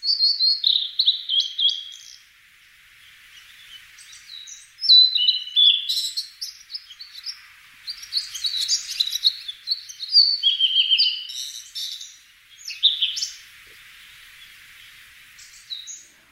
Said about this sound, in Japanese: 大瑠璃のさえずりのおかげで陸義園の森の小道を歩くと初夏の森林を歩いているかのように感じます